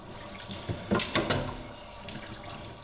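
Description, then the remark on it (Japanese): Running tap water pours steadily into a sink while dishes are rinsed after cooking, with a few brief clinks and splashy bursts near the middle; no one speaks. “その料理の後のね、えー、食器洗いの環境音をパックにしながら、ね、えー、食器洗いの洗剤のお話をしてみました。”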